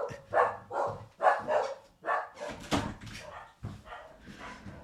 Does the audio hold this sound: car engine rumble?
no